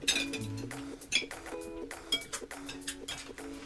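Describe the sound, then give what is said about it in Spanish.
Dishes and cutlery clink and clatter repeatedly as a mother sets the table for a meal, with bright, ringing metallic and ceramic taps in an irregular rhythm, fairly loud with no voices. “La mamá de Nayan puso la mesa.”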